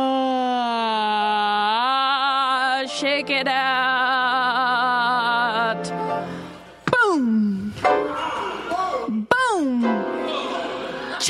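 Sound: big yawn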